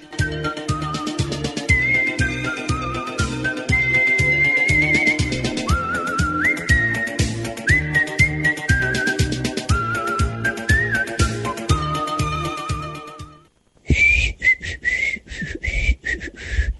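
A person whistles a lilting tune over a steady, rhythmic musical backing, the melody gliding between held notes; the sound drops out briefly near the end, then the whistling resumes.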